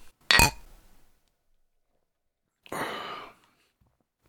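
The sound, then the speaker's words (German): A single bright clink of beer glasses touching in a toast, ringing briefly before fading, then a pause and a short breathy sip or exhale. “Sehr zum Wohle, Prost.”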